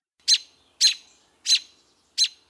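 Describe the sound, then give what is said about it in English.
A bird gives four sharp, harsh alarm calls at a steady, evenly spaced rhythm, each short and loud against silence, with no voices present. “Or distress calls or alarm calls.”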